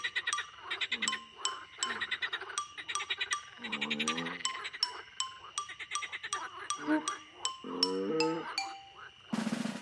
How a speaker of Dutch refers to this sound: Ik ben een kikker en ik kwak, kwak, kwak, kwak, kwak, kwak, kwak.